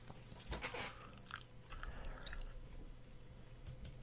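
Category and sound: food or drink, chewing gum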